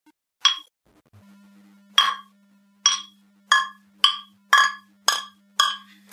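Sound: beer glasses clinking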